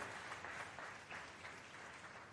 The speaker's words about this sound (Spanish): Démosle palmas al Rey de Gloria.